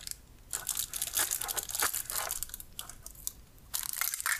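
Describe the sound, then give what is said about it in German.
Crackly plastic rustling and crinkling in uneven bursts, like a resealable plastic bag being handled and pulled open, with brief pauses between the louder crunches and no voices. “Diese wieder verschließbare Tüte.”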